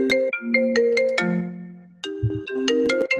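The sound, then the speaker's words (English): A cell phone ringtone plays a bright, melodic electronic tune of repeated chiming notes, loud, pausing briefly before the jingle starts again with no one talking. “get your act together. Please set all your cell phones to. So, silent.”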